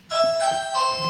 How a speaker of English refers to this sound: Oh, that's my doorbell.